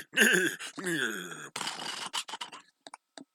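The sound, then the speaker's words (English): A person imitates a horse's neigh early in the morning with a wavering, quavering voiced whinny, then a breathy, sputtering lip-blow snort, ending in a few soft clicks. The sound is fairly loud. “see what my horse noises are like at godly hour of the morning.”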